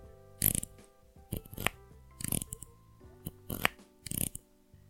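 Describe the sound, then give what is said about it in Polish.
A headphone headband being extended, producing a series of crisp ratcheting clicks that come in uneven pairs over a few seconds, with no talking. “E, to było, drodzy słuchacze, to było rozszerzanie pałonka.”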